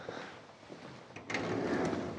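A drawer holding a collection of mobile phones slides open with a rolling, scraping rumble that grows louder midway through, a brief mechanical rattle, with no talking.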